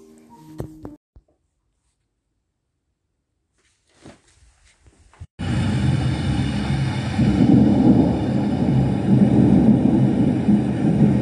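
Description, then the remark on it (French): After a few scattered knocks and a near-silent pause, a loud, sustained rumble of thunder rolls in and keeps growling steadily, deep and broad, as a storm breaks outside. “On entend le, tonnerre gronder et l'on comprend qu'un orage est en train de se déclarer au dehors.”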